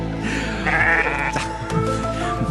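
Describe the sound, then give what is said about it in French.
Sheep in China that have been walking in circles for 12 days bleat loudly, several overlapping wavering baas running continuously through the short stretch, with no talking. “Le mystère est donc toujours bien présent pour ces moutons qui se suivent, il faut le dire, comme des moutons.”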